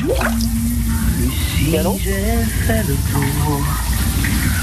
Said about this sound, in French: Dans la salle de bain, nous écoutions un chanteur sous sa douche.